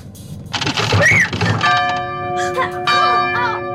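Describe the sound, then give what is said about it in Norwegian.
A burst of voices and commotion, then a church bell rung by a couple rings out with a long, sustained, humming tone. A second strike lands about a second later over the lingering ring. “Det er bare kjæresteparet som driver og ringer klokkene og, og ut ifra responsen så skjønte dere kanskje at det blei et lite kyss der.”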